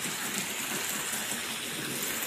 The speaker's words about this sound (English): So let's go ahead and wash this bad boy off. Dump all that stuff out and make sure that your boat is nice and clean.